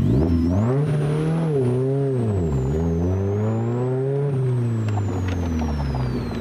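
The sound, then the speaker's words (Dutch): A Morgan Plus 4 sports car engine runs loud, its deep rumble rising and falling as it revs up and eases off several times, with no talking over it. “Ja, dat klinkt best lekker, hè? Dit is een Morgan.”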